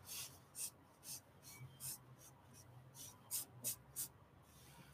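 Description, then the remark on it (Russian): Someone writes a question, 'how many', on a surface with a series of short, scratchy strokes in an uneven rhythm, quiet, over a low background hum with no talking. “И подведя итог, мы можем написать сюда еще один вопрос, напишем сколько.”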